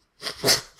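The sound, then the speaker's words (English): A single quick sneeze: a short intake followed by a sharp, hissy burst that fades within a second, with no talking over it. “oh, bless you.”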